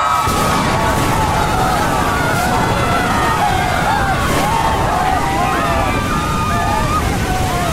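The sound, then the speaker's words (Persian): A loud, continuous roar of stormy wind and churning grey ocean waves several metres high around a ship, tossing it from side to side, fills the whole stretch, with a voice talking over the steady rumble. “یکی از اون روزا بود باد شدیدی شروع به وزیدن گرفت کشتی و به این طرف و اون طرف تکون داد اولین تون باد پایین اومد و بیشتر و بیشتر شد کاپیتان دستور داد سرعت رو کم کنیم تغییر جهت میدیم باد شدت گرفت طوفانی شد”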